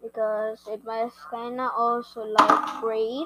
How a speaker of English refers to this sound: Sorry about the noise. My phone just fell out